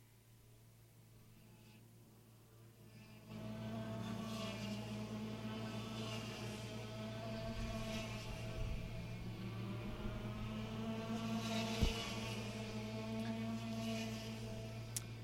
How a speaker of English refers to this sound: Engines fired once again as the Ruthless Karting Junior Rock drivers take to the track for their final session of the day.